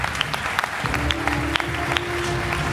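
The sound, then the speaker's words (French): A small group claps steadily for a few seconds, a dense patter of hand claps with a faint steady hum underneath and no one speaking. “Bravo, on applaudit quand même la performance de Michael.”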